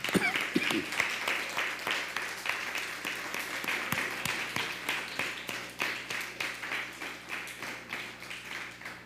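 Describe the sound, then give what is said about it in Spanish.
An audience applauds loudly, a dense wash of many hands clapping that continues throughout and, near the end, settles into a more even, rhythmic beat of claps. “Fuerte aplauso.”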